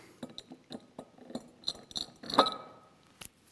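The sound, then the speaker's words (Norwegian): Large stones clink against a glass bowl as they are put into it: a quick irregular series of sharp taps, with one louder ringing knock near the end, fairly quiet with no talking. “Prøv å ikke knuse noe bolle.”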